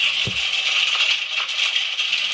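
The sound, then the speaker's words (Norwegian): Hail rattles steadily against the edge around a window frame at night in a dense, continuous patter of tiny hard impacts, loud, with one dull knock near the start and no voices. “Det, altså, vet du, hagla sånn på, dør, på eh, kanten rundt vinduet at det var sånn her og så ble jeg sur fordi at det hagla”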